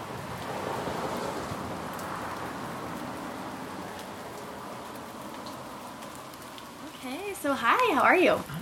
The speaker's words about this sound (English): I'm happy to be in Seattle to yeah. be talking with friends. I feel like we're gonna hear some lovely rain yeah, sounds probably. in the background.